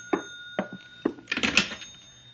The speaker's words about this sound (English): That ringing noise is back in my skull. You're a ham bone. That's the telephone.